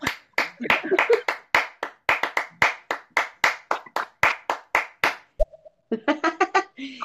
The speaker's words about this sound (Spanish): ¿Cómo que no se puede aplaudir? Si estoy tocando el botón con, el, con la punta de la nariz, estoy aplaudiendo, mira.